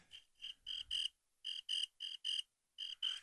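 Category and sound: sound effect, crickets chirping sound effect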